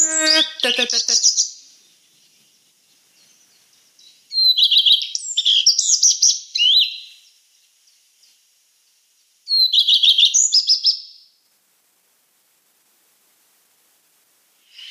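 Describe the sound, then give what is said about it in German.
A songbird sings bright, high-pitched phrases of quick chirps and trills. After a brief opening burst, two longer song phrases follow, separated by several seconds of silence. “der klingt ein bisschen wie ein Buchfink, der seine Strophe nicht zu Ende macht.”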